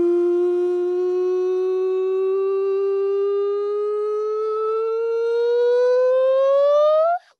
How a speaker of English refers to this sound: No, but we've had lots of we've had lots of nonsense sirens actually along the way.